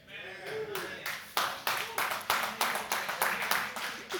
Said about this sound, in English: because everybody else didn't clap their hand. They did the golf clap.